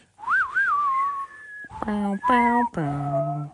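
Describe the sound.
A clear whistle glides up and down in a Western-style movie theme melody, then a voice picks up the tune with three loud, sung 'wah' notes, imitating the theme's horn-like calls.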